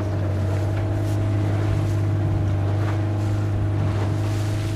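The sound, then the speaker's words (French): A motorboat's engine drones steadily as the boat puts out to sea, a constant low hum with water rushing and splashing against the hull throughout, with no voices. “À ces mots, il fit un signal, et comme s'il n'eût attendu que ce signal pour partir, le bateau prit aussitôt la mer.”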